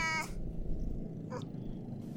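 A female cat in a home lets out a short, harmonic meow right at the start, followed by a second brief cry a moment later over a low, steady background rumble.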